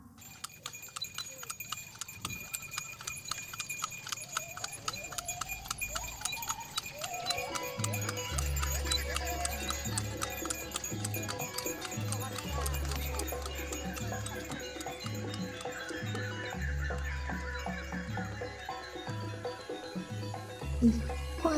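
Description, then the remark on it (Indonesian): Steady clip-clop of horse hooves pulling a delman, a horse-drawn carriage, in a brisk even rhythm, joined partway through by a deep, booming musical backdrop that carries on beneath the hoofbeats. “Akhirnya mereka menaiki delman tersebut tanpa tahu menahu siapa dan dari mana warga itu berasal.”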